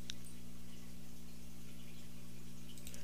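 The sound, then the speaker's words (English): A steady low mechanical hum with a faint watery bubbling and occasional small drips on top, quiet and continuous, from a fish tank. “That noise is my fish tank.”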